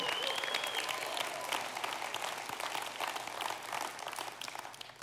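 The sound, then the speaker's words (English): An audience breaks into steady, dense applause, many hands clapping at once in a continuous crackling wash that holds at a fairly even level throughout, with no voices standing out. “That's a bottom line reality that deserves more than a birdie clap.”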